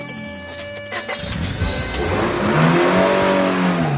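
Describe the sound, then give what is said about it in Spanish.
A car engine starts up and revs as a woman drives away clumsily, rising in pitch as the vehicle pulls away, the roar growing louder and steadier with shifting gears over a few seconds. “se monta en el coche y se marcha conduciendo con torpeza.”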